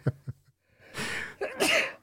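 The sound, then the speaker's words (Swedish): A few short sharp breaths give way to long, hissing gasping inhales as someone winds up for a sneeze, fairly loud, with no talking. “Nu ser ju inte folk att du liksom började ladda för en nysning.”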